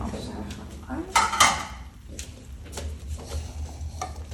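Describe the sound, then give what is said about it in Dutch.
A brief burst of metallic clattering as many pots and pans are shifted and set down after cooking preparation is finished, followed by softer scattered knocks over a low, steady background hum. “Dit zijn veel pannen. Ik zet de”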